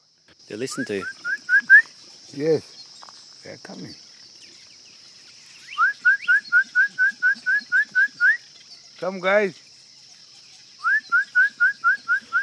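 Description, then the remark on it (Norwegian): A man whistles to lure crocodiles living about seven metres away, in quick bursts of short, rising whistles, broken by a few low voiced calls, while a steady high insect drone runs underneath outdoors. “Han plystrer på dem som om de skulle vært kosete katter.”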